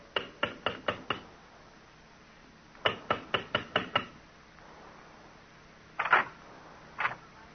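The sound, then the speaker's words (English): Sharp raps of a brass door knocker, under a sprig of Christmas holly on a door off a carpeted corridor, come in two quick bursts of five or six, followed by a couple of heavier, isolated knocks, fairly loud with no voices. “The sprig of Christmas holly above the brass door knocker. Uh, this time we'll knock”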